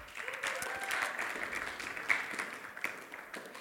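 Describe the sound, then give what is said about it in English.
Steady applause from an audience, a dense patter of many hands clapping at an even loudness for a few seconds, with no voices standing out above it. “Give them a clap.”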